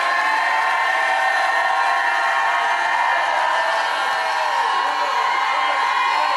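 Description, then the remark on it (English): A large audience shouts and cheers together in a loud, sustained roar of many overlapping voices, filling the space continuously from start to finish with no single speaker standing out. “Now go ahead and shout like you never shouted in your life.”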